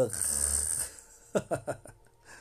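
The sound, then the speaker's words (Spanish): A person makes a rough, rumbling mock snore with a breathy hiss, followed by a few short choppy vocal bursts, with no words spoken. “si tuviera datos infinitos, dejaría el celular aquí para que me vieran roncar.”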